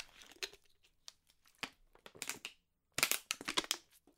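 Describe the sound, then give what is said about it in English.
Plastic water bottle crinkling as someone drinks, a string of sharp crackly crunches in irregular bursts, with a brief pause before a louder, denser flurry of crinkling near the end. “I need some water.”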